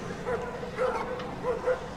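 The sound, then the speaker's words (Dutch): Dogs, one of them a German Shepherd, bark in a few short bursts over two seconds, some with a yelping, whiny edge, against a steady background rumble. “dit is wel een Duitse herder, is dit, hè?”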